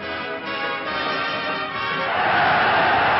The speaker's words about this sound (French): Mais voici le peloton, la foule, les cris, l'enthousiasme, les coureurs, le maillot jaune.